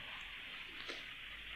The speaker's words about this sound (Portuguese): Isto é o som da chuva.